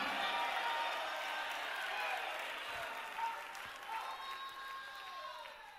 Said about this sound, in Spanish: Alguien puede alabar a Dios, alguien puede hacer grito de alabanza en este lugar.